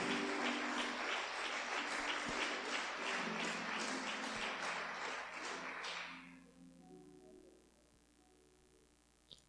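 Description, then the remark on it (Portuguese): An audience applauds God, with dense, loud clapping for about six seconds before it dies away, leaving a low, steady sustained tone and near quiet. “Pode aplaudir o Rei, o Rei da Glória, o Senhor dos Senhores.”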